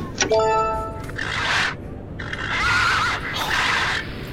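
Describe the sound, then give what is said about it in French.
A loud horse-like whinny, presented as a unicorn's cry, rings out in a quick shrill burst, followed by several breathy, snorting gusts with a faint wavering squeal between them. “Oh, je, vais entendre son cri, attends.”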